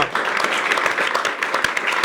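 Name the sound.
studio audience applauding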